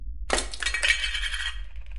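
A flashlight is dropped and hits the floor with a sharp crack, then rattles and clatters in a quick burst of bright, metallic-sounding impacts that ring out and fade over about a second, with a low hum underneath.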